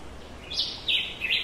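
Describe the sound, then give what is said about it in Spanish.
Forest birds sing clearly in a quick series of bright, high chirps, three sweeping phrases close together over a soft background hush, with no one talking, in a forest in the Quebradillas area with a great variety of birds and two miles of trails. “Y este bosque tiene una gran variedad de diferentes aves, tiene gran vegetación, al norte nos queda el Océano Atlántico y tiene dos millas de senderos, pero este bosque es extremo.”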